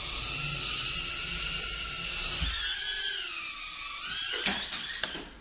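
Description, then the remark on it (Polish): A tiny 30-gram Tiny Hawk drone whines steadily as it flies and then lands, its high-pitched buzzing motor tones bending and shifting in pitch as it maneuvers, followed by a few sharp taps near the end. “Jak popatrzycie, to jest kamera GoPro, a tu jest ten dron, więc on jest naprawdę mały.”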